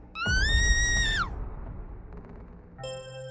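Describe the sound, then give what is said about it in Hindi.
A woman's loud, shrill scream inside a stalled car, just after someone knocks hard on the car window, holds for about a second, then drops off in pitch and cuts out, leaving a low rumble before a steady tonal sound comes in. “तभी अचानक विशाल की तरफ वाली विंडो पर किसी ने जोरदार तरीके से नॉक किया इससे पहले कि विशाल पीछे पलटकर देखता मल्लिका की तेज चीख विशाल के कानों में पड़ी”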